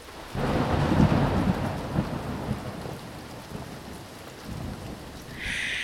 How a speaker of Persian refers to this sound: گنجشکام برای اینکه جوجه گنجش خیس نشه بالاشون رو روی اون گرفته بودن و به آسمون نگاه میکردن که رد و برق شدیدی شروع شد